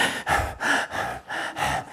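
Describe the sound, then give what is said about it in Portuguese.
A person demonstrates the normal breathing pattern, breathing in and out audibly through the mouth, about six quick, airy breaths in a steady rhythm, with no talking. “Mas não é o nosso padrão de respiração. Nosso padrão é.”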